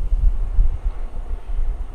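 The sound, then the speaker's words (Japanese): A deep, steady rumble of a jet airplane coming in to land on runway 16 Left at Narita Airport, heavy low-end roar with some wind-like buffeting, fairly loud and continuous, with no voices. “手を伸ばしたら届くんじゃないかぐらいのですね近さに、えー、飛行機が着陸を、えー、するところがですねもう見えるところで、えー、ポッドキャストをこの番組を撮っています。”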